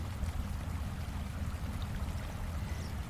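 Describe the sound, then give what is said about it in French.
A rain-swollen stream carrying mud flows steadily beside and even under a house, a continuous low, rushing gurgle of water with no pauses and no voices. “Aux abords de la maison, voire même sous la maison, coule un ruisseau. Il a plu. Le ruisseau a grossi et charrie de la boue.”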